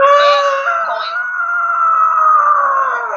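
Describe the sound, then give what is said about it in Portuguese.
Several neighborhood dogs howl together in long, overlapping, wavering tones that rise and fall slightly, loud and continuous for the whole stretch with no one talking. “A cachorrada da vizinhança estava em silêncio foi a gente entrar ao vivo.”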